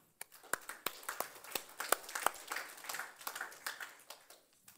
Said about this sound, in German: Wer von euch braucht eine zweite Chance? Okay, vielen Dank. Ein Applaus auch. Bleibt bitte stehen.